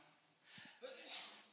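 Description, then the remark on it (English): A single sneeze: a short breathy intake builds up, then a sudden hissing burst of air that trails off over about half a second, fairly soft and heard alone. “Bless you.”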